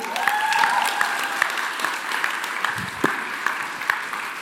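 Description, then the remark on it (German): An audience at Blaze Night, a worship gathering, claps steadily for a few seconds, dense overlapping hand claps forming a sustained wash of applause at a fairly even, moderate loudness, with a few sharper individual claps standing out. “Deswegen, hey, nochmal einen fetten Applaus dafür, dass wir Blaze Night haben dürfen.”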